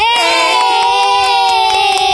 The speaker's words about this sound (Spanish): Mírenla qué linda, ya le pegó a la piñata y todos los niños aplaudían.